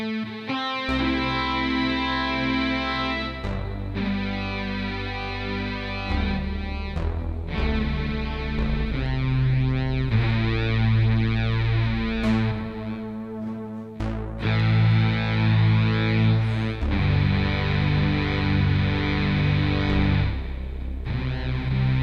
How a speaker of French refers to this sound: Montre-nous ta nouvelle pédale. Pédale de synth. Pédale de synthétiseur.